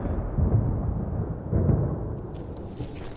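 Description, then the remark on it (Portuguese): Deep thunder from an approaching storm under black clouds rumbles low and heavy, swelling in two rolling waves before trailing off, with faint crackling hiss toward the end. “A trovoada aproximava-se.”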